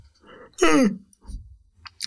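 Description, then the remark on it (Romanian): A person gives a short, relaxed, nonchalant yawn, a breathy vocal sound sliding downward in pitch for about half a second, followed by soft breathing and faint mouth noises. “Eu o să vreau casca- căscatul pasiv o nepăsător.”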